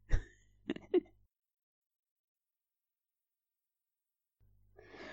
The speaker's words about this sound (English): Just like this random guy I don't know is coughing.